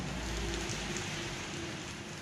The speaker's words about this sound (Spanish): La lluvia va a seguir, así que no nos preocupemos.